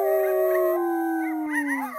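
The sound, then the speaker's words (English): A coyote far off in the distance at night lets out a long, sustained howl that slowly falls in pitch, while higher wavering howls from other nighttime animals chime in toward the end. No one speaks. “It's Coyote howling along with his other nighttime friends.”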